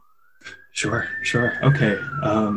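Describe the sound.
A police siren wails steadily in the background, a single sustained tone slowly rising and then easing, while people talk over it in the foreground.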